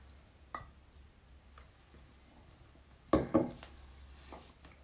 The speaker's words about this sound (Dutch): ik ga nog een slokje water nemen.